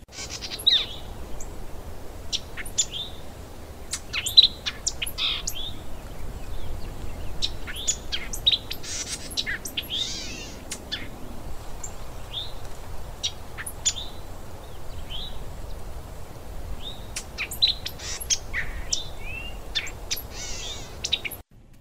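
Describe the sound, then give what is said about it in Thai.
Outdoor park ambience filled with many birds chirping and tweeting, short bright calls scattered throughout over a steady low background hum of open air, with no one speaking. “เพราะฉะนั้นต้องพาไปผ่านเสียงถ้าคุณผู้ฟังพร้อมแล้ว แม่แจงกับแม่ปลาก็พร้อมเหมือนกันไปสวนสาธารณะกันค่ะ”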